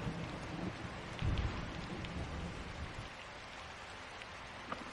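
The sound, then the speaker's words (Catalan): Heavy rain pours steadily in a dense, hissing wash, with a low rumble of thunder swelling briefly early on and a few sharper drips or pops standing out. No voices. “Es van succeint llamps i trons i la pluja esdevé una cortina d'aigua cada cop més sorollosa.”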